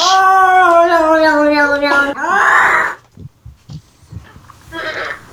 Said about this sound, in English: For the sound of my cat screaming, she is not in an emergency. She's just being a bitch.